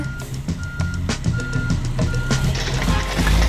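A heavy garbage truck slowing down rumbles while its reversing alarm beeps in a steady repeating pattern, about four evenly spaced beeps, with engine noise and mechanical clanks underneath.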